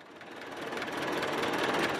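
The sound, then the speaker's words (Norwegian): The engine of an old, thoroughly rusted Soviet-made tractor in Cuba runs with a steady, rough mechanical roar, gradually swelling in loudness over two seconds, with no voices present. “Traktoren til Martin de Armas er gjennomrustet”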